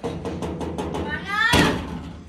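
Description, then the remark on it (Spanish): About six quick, evenly spaced knocks on a wooden door, moderately loud and close, followed by a rising, squawky, bird-like call and a brief rustling burst. “A ver no sé si escucharon, que hay un periquito que tenemos que toca la puerta”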